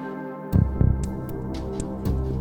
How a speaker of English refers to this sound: Love all the pulsing and the ticking. I think that works really, really well.